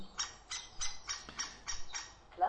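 A quick series of about seven short, chirpy bird calls repeats in a steady rhythm, fairly soft, with no talking over them: a nature sound scheme on a computer, heard as the Alt key is pressed to open a menu.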